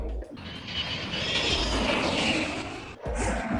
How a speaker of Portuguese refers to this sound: Passou o avião?